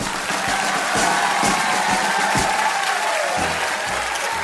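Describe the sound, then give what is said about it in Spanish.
Loud, sustained applause from a crowd, a dense steady clatter of many hands clapping with no pauses, lasting the whole stretch at an even volume, welcoming people who worked exposed to the virus. “Que se escuche un fuerte aplauso.”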